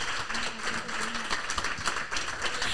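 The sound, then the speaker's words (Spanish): An audience breaks into sustained applause, a dense wash of many hands clapping at steady loudness for a few seconds, with a faint murmur of voices underneath. “Un aplauso por la honestidad de esta señora con nombre compuesto.”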